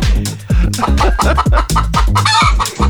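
Loud chicken clucking in a rapid, uneven string of sharp calls that tumble over one another with no pauses, with no voices or other sounds.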